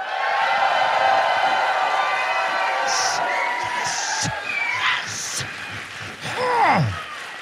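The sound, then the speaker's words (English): A live audience in Dallas, Texas, asked to say hello, cheers and applauds loudly and steadily, a dense wash of crowd noise with scattered whoops and shouts rising out of it, sustained for several seconds. “Yes, and it's and, and, and for the folks back home, by the way, we've managed to get a crowd that size during a Cowboys game in the playoffs.”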